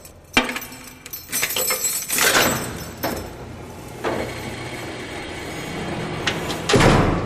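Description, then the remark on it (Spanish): A heavy metal cell door is unlocked and dragged open: a sharp clank, then a grinding slide with rattling and a few loud knocks, ending in a final heavy thud. “Eh, yo qué sé, en vez de preguntar tanto por qué no nos abres la puerta, que a mí esto ya me está empezando a provocar demasiado agobio.”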